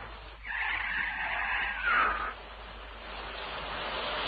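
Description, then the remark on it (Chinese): A speeding small car skids in pouring rain as it knocks down a woman, its tires letting out a loud screech for nearly two seconds that rises to a brief whine before cutting off, leaving a steady hiss behind it. “在滂沱的大雨中，突然一辆疾驶的小汽车撞倒了一个妇女。”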